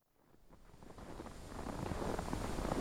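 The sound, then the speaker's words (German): Cold wind blows steadily on a day that has been cold and windy for several days, a broad rushing roar with gusty fluctuations that swells from quiet to loud over a few seconds, with no voices. “Es war wie seit einigen Tagen schon kalt und windig”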